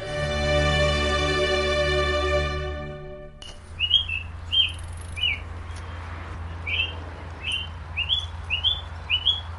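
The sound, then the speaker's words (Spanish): A sustained musical chord ends abruptly, giving way to quiet outdoor ambience on the University of Cambridge campus on a typical March morning, where students and teachers pass daily: a steady low hum underneath while a bird chirps short, bright notes repeatedly. “Esto que escuchan de fondo es el sonido ambiente en el campus de la Universidad de Cambridge una mañana típica del mes de marzo, por aquí pasan cada día estudiantes y profesores de camino a las aulas o a la oficina.”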